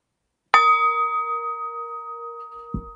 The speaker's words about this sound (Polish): Ale żeby była uczciwa i surowa, i, znaczy, żeby była uczciwa, skoro ma być surowa, to najpierw yy, yy, misa tybetańska i nasz gong, uwaga.